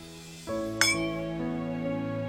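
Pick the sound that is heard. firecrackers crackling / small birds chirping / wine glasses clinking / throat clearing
wine glasses clinking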